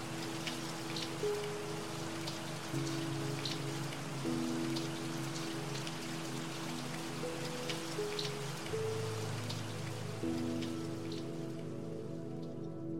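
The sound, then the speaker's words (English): Light rain outside: raindrops tap steadily against window glass in a constant, even patter, with scattered sharper drips, while soft sustained low tones hum continuously underneath. No one speaks. “Hearing and perceiving the raindrops slightly touching the windows, rhythmically, consistently.”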